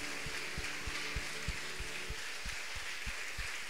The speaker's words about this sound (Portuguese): Aplauda Jesus porque Ele é bom. Obrigado, Jesus.